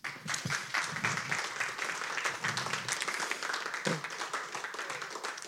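A crowd applauds steadily for several seconds, welcoming a speaker who is about to open a panel discussion: a dense and even wash of many hands clapping at once, with sharper individual claps popping out now and then.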